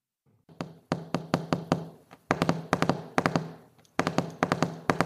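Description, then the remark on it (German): Fingertips drum on a desk in quick rolling bursts of taps, several groups separated by short pauses, fairly loud with no voices present. The sound stands for the German chancellor drumming her fingers on her desk in the Federal Chancellery. “das ist das imaginierte äh, Fingertrommeln der Kanzlerin auf ihrem Arbeitstisch im Bundeskanzleramt”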